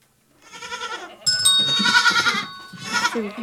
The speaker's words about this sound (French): Bah, la chèvre. Bonne réponse.